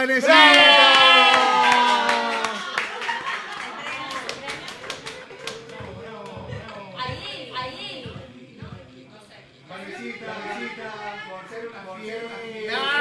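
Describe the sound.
A crowd bursts into loud shouting and cheering, followed by a stretch of scattered clapping, with excited voices calling out over the applause throughout.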